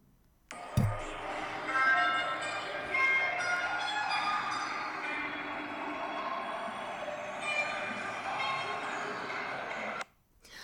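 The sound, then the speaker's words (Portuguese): Dense, droning synthesizer music made by synthesizers connected to mushroom mycelium, with layered sustained tones and shifting metallic overtones, holding a steady, fairly loud level for about ten seconds before cutting off abruptly. No voices. “Isto são cogumelos a fazer barulho. Vamos ouvir outra vez, pode ser?”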